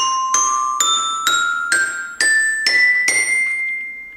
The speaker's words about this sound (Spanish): Son célebres algunas silografías medievales que representan a los acusmáticos y a los matemáticos pitagóricos percutiendo vasos llenos con distintas cantidades de agua para obtener notas musicales.